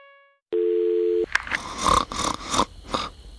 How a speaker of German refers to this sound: Äh, meine Frau schnarcht so komisch. Was, was kann man da machen?